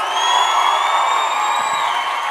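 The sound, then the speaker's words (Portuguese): A crowd applauds and cheers for comedian Afonso Padilha in a steady, loud wash of clapping, with high whoops and shouts layered over the roar throughout. “Tá porra, mais aplauso, Whindersson Nunes, senhoras e senhores.”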